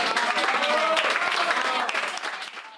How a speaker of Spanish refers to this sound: Así que un fuerte aplauso para